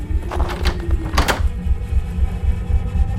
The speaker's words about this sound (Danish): Så skubbede han døren op og trådte ind.